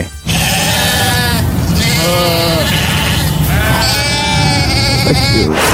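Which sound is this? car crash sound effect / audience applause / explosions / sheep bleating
sheep bleating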